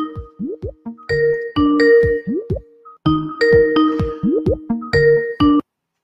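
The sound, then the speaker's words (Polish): A telephone ringtone plays a bright electronic melody of chiming tones and bubbly rising blips, loud, repeating the same short phrase twice with no voices. “Ktoś dzwoni, więc od razu odbieramy telefon.”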